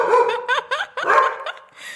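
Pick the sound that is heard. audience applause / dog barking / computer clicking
dog barking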